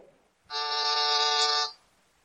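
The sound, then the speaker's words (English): A single harsh, steady intercom buzz, used to buzz the doctor, holds at one pitch for just over a second, rich and rasping, then cuts off abruptly, with no voices around it. “I'll buzz him.”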